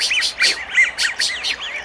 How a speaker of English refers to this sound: The the male American widgeon, which is a very vocal bird, gives that uh, piercing three syllable note